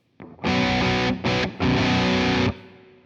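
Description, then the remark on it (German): Heavily distorted electric guitar played through a 4x12 speaker cabinet plays three loud, buzzing chords: a long one, a short stab, then another sustained chord that cuts off abruptly. A faint pick noise comes first. No one speaks. “Da fehlt jetzt allerdings die 4x12er Box, die können wir nochmal einschalten.”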